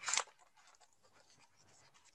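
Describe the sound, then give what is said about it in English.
A brief, crisp rustle of papers being shuffled as someone searches a pile of papers for one about osteoarthritis, sharpest at the start, then trailing off into soft, scattered crinkling and handling noises, with no one speaking. “Now, for example, I happen to have a paper here somewhere. I have a lot of papers.”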